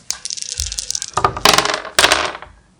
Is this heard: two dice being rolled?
yes